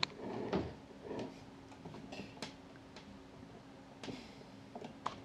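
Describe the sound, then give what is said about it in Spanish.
Quiet, irregular scraping and scratching bursts of a cat clawing at a chair, with short rasping strokes and clicks spread across a few seconds amid otherwise still surroundings. “Hoy vamos a hablar de un montón de cosas mientras el gato rompe mi silla.”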